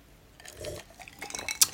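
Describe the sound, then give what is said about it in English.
A quiet sip of tea, with soft wet slurping and small liquid sounds, ending in a brief, bright clink like a cup being touched. No one speaks. “Let me get let me sip on my tea.”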